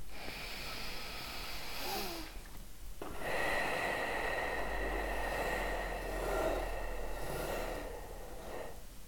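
Slow, deep breathing into the belly: a long, airy inhale, a brief pause, then an extended, rushing exhale that swells and fades, with no talking.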